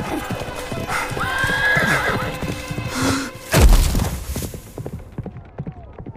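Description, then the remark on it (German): A horse whinnies loudly with a rising, wavering neigh as it bucks, then a heavy thud lands as its rider, Claude Monet, falls, followed by a rapid run of hoofbeats clattering and fading away. It happens among French troops in Algeria. “Doch etwas stimmt nicht. Ne das Reittier schlägt aus.”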